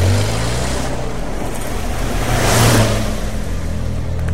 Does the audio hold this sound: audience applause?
no